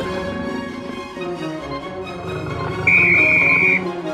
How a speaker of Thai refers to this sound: เมื่อเสียงนกหวีดดังขึ้น นักวิ่งทั้งสองก็ต่างมุ่งหน้าไปยังเส้นชัย